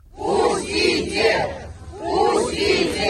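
A crowd of supporters shouting 'Let us pass' together at Borisovo cemetery in Moscow, where people queued to bid farewell to Navalny. Loud, surging waves of many voices rise and fall in repeated chant-like bursts, with no single voice standing out, as flowers are raised and thrown over the cemetery fence.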